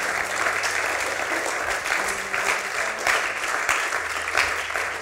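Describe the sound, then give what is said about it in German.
Sustained audience applause at a Christian gathering for everyone who has professed their faith, a dense, even wash of many hands clapping for several seconds at a steady, fairly loud level, with a low tonal hum underneath. “Komm, wir geben mal Applaus für jeden, der hier sich bekannt hat, okay?”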